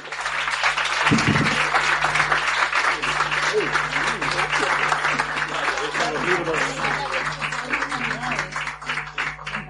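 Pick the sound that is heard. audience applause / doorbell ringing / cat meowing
audience applause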